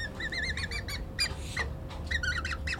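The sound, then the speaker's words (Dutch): Young birds in a nest give repeated high, squeaky calls in quick bursts, several chicks overlapping against a low steady background rumble, with no talking. “Het zijn dus de jonkies die we horen, hè?”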